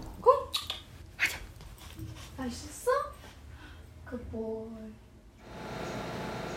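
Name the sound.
dog barking and whimpering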